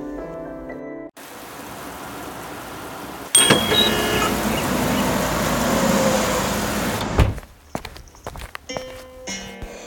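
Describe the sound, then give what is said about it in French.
Busy café ambience in a café in Oran, from a scene of Albert Camus's La Peste: a steady wash of room noise, clattering dishes and footsteps, and the ring and clunk of a cash register; the bustle thins into scattered clinks near the end. “Extrait de La peste d'Albert Camus dans un café à Oran.”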